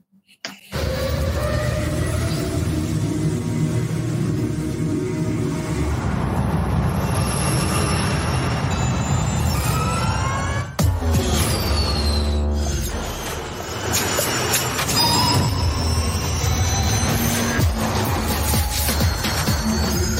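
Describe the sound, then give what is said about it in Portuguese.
A Formula E electric race car drives past, loud, its high motor whine rising and falling in pitch over a steady roar, with no one talking. “a gente vai ver agora um clipe para mostrar as diferenças do carro da geração 2 para o carro da geração 3.”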